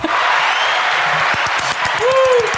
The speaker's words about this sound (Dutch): Applaus ja, ehm, mooi.